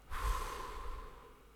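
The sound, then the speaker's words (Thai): A deep, breathy rush of air as someone takes a slow, mindful breath in and then out, starting abruptly and slowly fading over about a second and a half, with no talking. “ก็คือเขาบอกว่าแค่ให้หายใจอย่างมีสติครั้งเดียวก็พอครับ หายใจเข้าก็หายใจเข้าลึกๆ แล้วก็หายใจออก”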